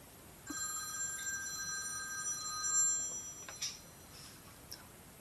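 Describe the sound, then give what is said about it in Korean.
A telephone rings in one sustained, bright electronic trill lasting a few seconds, then stops, leaving a couple of faint clicks, with no voices. “지금 중요한 전화를 기다리고 있단 말입니다.”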